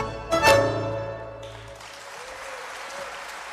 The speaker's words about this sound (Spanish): Bueno, muchísimas gracias por sus aplausos, por esta calidez, por estar presentes, por acompañarnos. Para nosotros es, es un orgullo participar y haber sido convocados en este Festival y Mundial de Tango de Buenos Aires.